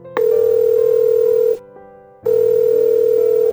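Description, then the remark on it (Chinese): A steady, mid-pitched tone from a mobile phone placing a call sounds loud and unbroken for over a second, cuts out briefly, then returns at the same pitch, with no one speaking. “一接通电话就赶忙问道”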